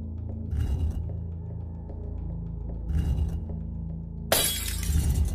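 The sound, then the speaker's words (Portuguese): A glass bottle drops and shatters in a loud, bright crash near the end, preceded by two shorter glassy rattles, all over a steady low rumble in the background. “Você largou a garrafa.”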